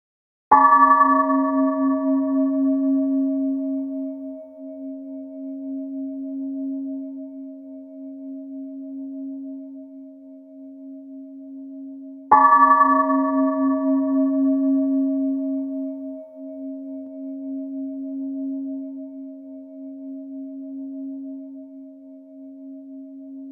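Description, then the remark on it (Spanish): A bell is struck twice, about twelve seconds apart, during a one-minute relaxation exercise, each strike leaving a long, steady ringing tone that slowly fades. No voices, just the sustained resonant hum. “Escucharás una campana, no abras los ojos hasta que dejes de escuchar la campana completamente.”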